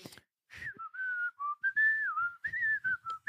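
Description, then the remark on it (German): Someone whistles a bright, bouncy tune, with clear sustained notes gliding between pitches in a lively rhythm, briefly interrupted by short breaths or pauses. “Hast du dabei so eine fröhliche Melodei gepfiffen? So.”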